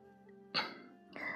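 A man gives a stifled, muffled cough, holding his voice down: a short throaty burst followed about half a second later by a second, longer rasp, both fairly quiet, with no talking.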